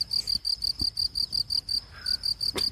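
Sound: cricket chirping sound effect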